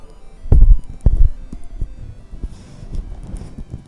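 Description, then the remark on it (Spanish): Heavy thumps and bumps as a microphone is handled and shifted into place while the speaker moves closer to it, two strong knocks early on followed by lighter scraping and rustling taps. “Voy a ver, ¿qué tal si yo me acerco un poquitilín? Y yo pongo este micro.”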